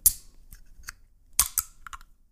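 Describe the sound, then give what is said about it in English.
The tab of a can of Zoa Healthy Warrior Energy Drink is being worked open: a string of sharp, dry metallic clicks and snaps, irregularly spaced, with a brief bright crack at the start and no voices. “So uh, let me just get the tab on this puppy and.”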